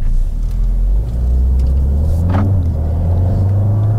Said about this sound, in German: Nach dem Motorstart ist von Krawall noch nicht viel zu hören, weil da der Komfortmodus aktiv ist.